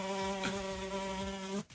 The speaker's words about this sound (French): Il y a une mouche. Du coup, bah, sous la mouche, euh, voilà.